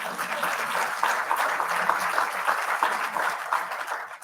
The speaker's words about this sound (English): And I didn't know that was going to be the applause line, but I'm glad to have it. That's, that's who deserves it.